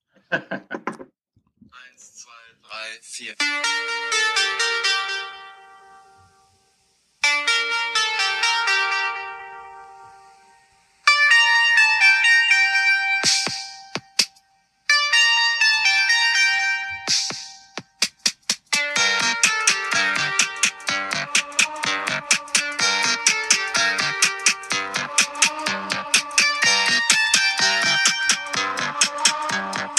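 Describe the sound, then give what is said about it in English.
A bright electronic synth tune with tinny, chime-like tones, reminiscent of an old mobile ringtone, plays loudly in short melodic phrases, then shifts into a busier, rapidly pulsing section. No voices. “sounds like a, a ringtone from 2001.”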